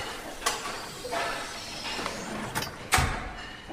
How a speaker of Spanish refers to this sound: Ella empuja con fuerza una puerta de vidrio.